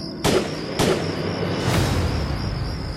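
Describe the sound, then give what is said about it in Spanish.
Two sharp, loud gunshots crack in quick succession, about half a second apart, followed by a fainter third thump and a lingering hiss as the echoes fade. “fue que recibió dos disparos.”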